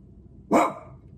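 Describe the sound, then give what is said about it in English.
A single sharp dog bark rings out, loud and abrupt against a quiet, faintly hissing background in a studio, then fades quickly with no talking. “oh, dog's gonna be barking.”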